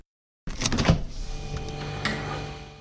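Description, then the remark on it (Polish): A refrigerator: a sudden clunk and rattle as it starts, a second softer knock, then a steady low electric hum that carries on to the end. No one speaks. “Poznajecie? To odgłos lodówki.”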